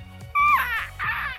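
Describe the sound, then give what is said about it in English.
A voice imitates the strained, damaged croak of a voice with vocal nodes from throat infections, trying to say lines on stage: two fairly loud bursts of squeaky, breaking vocal sound in quick succession, the first rising sharply, the second a shorter rasp, with no actual words. “I've had such bad uh, throat infections and things like that that I developed nodes and honest to god, there was times I was on stage and I would open my mouth to say my lines and it would sound like this.”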